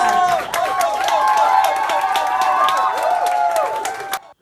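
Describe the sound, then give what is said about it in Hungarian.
A show audience applauds loudly and steadily for about four seconds, welcoming the host and guest, dense clapping mixed with scattered cheers and whoops, then cuts off abruptly. “szomjaztam ezt a tapsot.”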